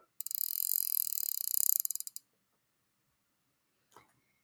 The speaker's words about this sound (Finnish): Eli kireitä siimoja, jos mä nyt oikein tulkitsin. Joo, se oli perhokelan jarru. Toivotaan, että jarru huutaa.